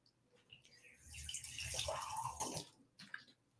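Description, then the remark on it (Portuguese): Water pours into a glass for a couple of seconds to be drunk, a soft splashing rush that swells and fades, followed by a few faint clinks and quiet handling sounds. No one speaks. “Espera aí que eu vou precisar tomar uma água aqui.”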